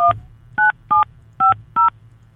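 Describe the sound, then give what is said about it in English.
Five short, evenly spaced touch-tone beeps ring out clearly as a phone number is dialed to call someone and leave a voicemail, each a crisp dual-pitched tone over a low background hum. “Let's uh, leave him a really annoying voicemail.”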